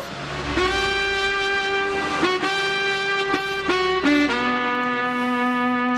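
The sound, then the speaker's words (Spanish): The opening jingle of the radio station Caribe FM: a loud run of sustained, bright horn-like tones stepping through several pitches, ending on a held lower note, with no voices. “Mira, cuando empieza Caribe FM suena esto, ¿verdad?”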